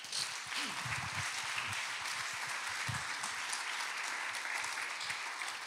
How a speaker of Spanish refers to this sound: Pero la buena noticia es que Jesús resucitó. ¿Por qué no le das un aplauso a Dios?